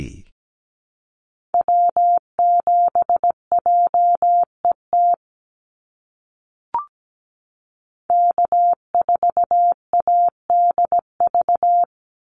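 A single steady, mid-pitched Morse code tone keys out a North American SOTA activator callsign at 17 words per minute, a brisk, even pace, then falls silent. After a brief click it sends a second callsign in the same rhythm.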